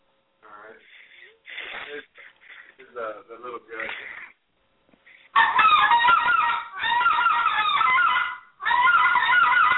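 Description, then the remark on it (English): Loud, raspy goose honks blown on a small-gut goose call, slightly higher pitched, in three long bursts, each packed with rapid clucks and honks, following a stretch of short spoken phrases. “A small gut's a little higher pitch, you know, but yeah, that was a smaller gut.”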